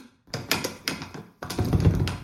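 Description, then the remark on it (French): Someone rattles and bangs at a door locked with a key that won't open, a burst of knocking thumps and jostling clatter, then a pause and another heavier round of shaking, with no voices. “C'est toi qui as bloqué la porte C'est fermé à clé”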